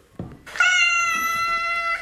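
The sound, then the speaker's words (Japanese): A cat, called Nekobayashi (猫林さん), lets out a single long, drawn-out meow, rich and steady in pitch, heard on its own after a soft thump at the start. “あ、猫林さんもね、かなり注意されてるみたいですね。”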